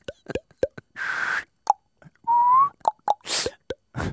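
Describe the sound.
A person vocally imitates a sound effect: a string of mouth pops and clicks, breathy blowing bursts, and a short sliding whistle that bends upward, all fairly loud, with no speech.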